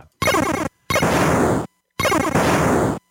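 Three loud, harsh bursts of retro video game sound effects from the Genesis (Mega Drive) version, each a dense, buzzy, distorted electronic blast separated by brief silences, with no talking.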